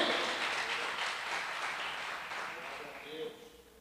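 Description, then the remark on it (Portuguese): A church audience applauds God during a sermon, a steady dense wash of many hands clapping that holds for several seconds before tapering off, with faint voices mixed in. “Você pode dar um aplauso a esse Deus maravilhoso, em nome de Jesus?”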